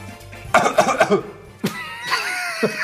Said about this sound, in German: auf unser Zeichen, wenn ich laut huste.